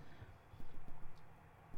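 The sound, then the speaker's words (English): Several faint, hollow knocks like footsteps, caught by a camera in a ritual room, fall in a loose, uneven rhythm over a low, steady background rumble, soft with no voices present. “there's a few seconds in where you hear it it almost it almost sounds like a footstep or a couple of footsteps but you know, maybe it is, maybe it isn't.”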